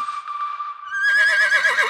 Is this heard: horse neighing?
yes